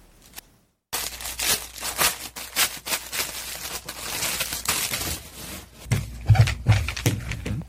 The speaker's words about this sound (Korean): 뭐지? 무슨 뭘 누르시는 것 같은데? 어? 포장? 어, 테이프. 아, 테이프 떼시는 것 같다. 어. 어. 소리. 네. 아, 이거 그건가 보다. 포장지에 붙어 있는 그 테이프 떼서 붙이는 아, 음. 작업이신가 보다.